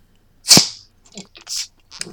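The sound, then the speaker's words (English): A beer bottle is opened: one sharp, loud pop of the cap, then a short hiss of escaping gas that quickly fades, followed by a few faint, brief clinks and rustles. “you hear the opening? I certainly can.”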